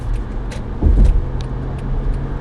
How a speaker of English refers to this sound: Alright, driving here, and I'm driving on the highway, which I typically don't, but since it's later in the day, I'm able to do it because there's not that much traffic.